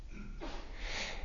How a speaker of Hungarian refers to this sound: trüsszentettél.